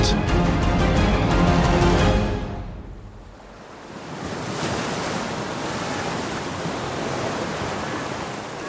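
Metre-high waves crash against a small fishing boat in the middle of the water in the eye of a storm: a loud surge of churning water fades after a couple of seconds, then a steady rush of rough sea and wind carries on with no voices.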